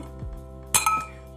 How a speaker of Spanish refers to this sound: Bueno, mejor brindemos.